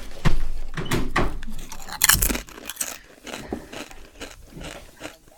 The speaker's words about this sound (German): Ich esse nur mal einen Chip.